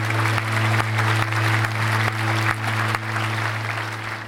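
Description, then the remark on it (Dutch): Sustained applause from a crowd, a dense wash of clapping that stays loud and steady throughout, with a low steady hum underneath and no talking. “Gaan we applaus voor uh, eh”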